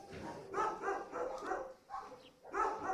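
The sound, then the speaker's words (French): Many dogs bark in overlapping, echoing bursts from the full kennel boxes of an SPA animal shelter. The barking comes in loud waves with short lulls between them, and no one speaks. “Ici, les chiens sont euh, très nombreux. Tous les boxes derrière euh, moi euh, sont remplis.”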